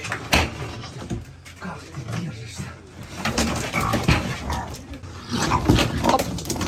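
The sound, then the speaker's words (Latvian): A raccoon taken from a zoo in Kherson struggles and resists as it is grabbed by the tail and thrown into a cage, letting out harsh growls, snarls and squeals amid scuffling and rattling, loud throughout with barely a pause. “Ieraksts pavadīja arī video, kurā redzams, ka dzīvnieks, kurš ļoti pretojas, tiek sagrābts aiz astes un iemesls būrī.”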